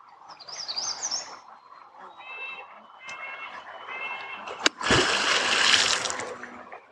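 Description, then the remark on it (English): A beaver at a dam pond in Voyageurs slaps its tail on the water once with a sharp, loud smack, followed by a few seconds of splashing, while birds chirp and trill in the background beforehand. “That tail smack lets other beavers in the area know that we're here and potentially dangerous.”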